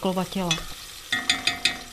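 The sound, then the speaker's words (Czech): Onions frying in oil in a pot with thyme added, giving a steady sizzle and a few sharp, rhythmic scrapes of stirring. A short voiced sound comes just before the stirring starts. “A uh, už jsem si teď zvykla i na ten olej s tou cibulí dát ten tymián rovnou.”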